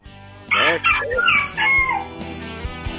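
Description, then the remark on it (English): A rooster crows loudly, one drawn-out cock-a-doodle-doo lasting about a second and a half, followed by a few soft low thumps. “You've got to get one last crow in.”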